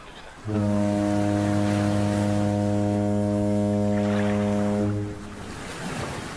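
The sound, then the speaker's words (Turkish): A ferry's deep horn sounds one long, steady blast lasting several seconds as the ferry departs the pier, loud, over a continuous wash of waves and wind that carries on after the horn stops. “vapurumuz hareket etmiştir.”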